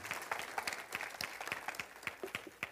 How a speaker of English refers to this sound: Come on, let's give him a hand clap.